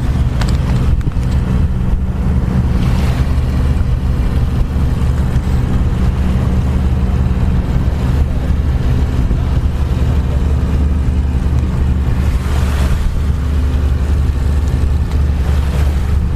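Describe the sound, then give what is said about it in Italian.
A fishing boat's engine drones steadily at sea at night, 22:50 on 29 July 2021, the boat carrying powerful lights to attract fish; a loud, constant low rumble with waves lapping rhythmically at the bow, occasional splashes and rushes of water and wind, no voices present. “Ecco appunto, questo è il rumore del motore della barca che ha con sé le luci molto potenti che servono per richiamare i pesci.”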